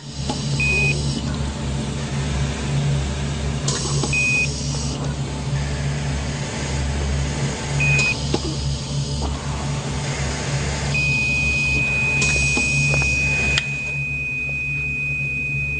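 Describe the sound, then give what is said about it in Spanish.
A heart monitor by Fernando Peña, lying on a stretcher full of cables and on oxygen in a censored MTV advertisement, gives three evenly spaced single beeps a few seconds apart, then a long unbroken tone, all over a steady low mechanical hum with no voices. “También había grabado una publicidad para MTV que fue censurada, él estaba postrado en una camilla, lleno de cables y con oxígeno. El bip del corazón sonaba.”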